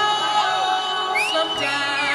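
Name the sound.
audience applause and cheering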